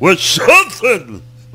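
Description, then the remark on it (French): A loud voice fakes a sneeze by blurting out a word in one sharp burst, followed by a brief vocal exclamation and a low hum fading into quiet. “à tes souhaits.”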